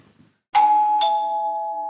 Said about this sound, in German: Ey, es hat gerade geklopft, oder? Geklopft oder geklingelt? Ich hab's klingeln gehört. Ich hab's klopfen gespürt. Vielleicht hat jemand geklingelt und geklopft.